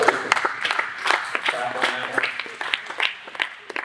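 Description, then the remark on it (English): A church audience, celebrating the church's six-month anniversary, applauds with steady, moderately loud clapping made of many overlapping sharp claps, while voices murmur underneath throughout. “Okay to clap.”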